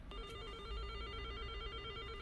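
A telephone rings steadily as a call to an unreachable number is forwarded, a high electronic tone with stacked harmonics held continuously over a low background hum, with no voices.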